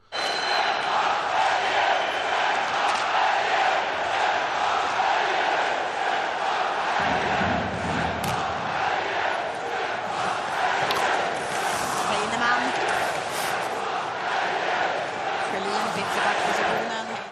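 A sports crowd in Leksand chants supporter songs in unison, started by a group of fans, a loud, dense wall of many voices with rhythmic swells and shouts rising out of the mass throughout.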